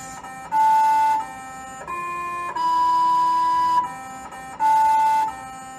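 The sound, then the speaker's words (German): A buzzy, machine-made melody of the Happy Birthday tune, played by a small robot rover on Mars as a few sustained electronic-sounding notes that step up and down in pitch, loud with no voices. “Seit 2012 singt ein kleiner Roboter auf dem Mars einmal im Jahr für sich selbst Happy Birthday.”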